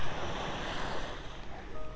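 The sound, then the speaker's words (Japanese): Steady ocean surf washes in continuously at the sea in Kanagawa, Japan, on a day of sunny breaks after a week of rain, a broad hissing roar of waves at the shore with some wind buffeting the microphone, and no voices present. “神奈川は特に、えー、本当に降ったり止んだり今日たまたま、えーっと、久々に晴れ間が見えたので海に来てるんですけど”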